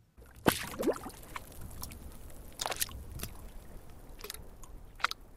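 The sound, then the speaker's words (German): Water gurgles and laps softly against a floating oud, a lute whose bulging wooden body sways on sea waves, with irregular wet splashes and glugs as the water breaks on the wood, over a quiet background. “Der bauchige Körper der Laute schwankt in den Wellen wie ein fröhliches Boot. Doch der glucksende Klang des Wassers, das sich am Holz bricht, löst auch Angst aus.”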